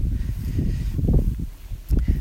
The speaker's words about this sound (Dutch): Heel veel wind. Ik ga even kijken of ik uit de wind kan staan.